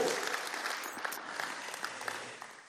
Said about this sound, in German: Alright, ihr dürft Gott noch mal einen Applaus geben, dann lese ich mal gleich vor.